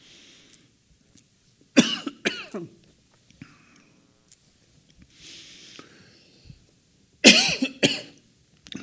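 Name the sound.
repeated coughing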